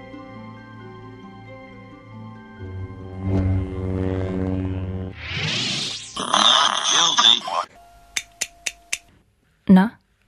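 A cartoon mouse's eye-blink sound effect: four quick, crisp clicks in an even rhythm, then one more a moment later, following a stretch of playful, tonal cartoon noises.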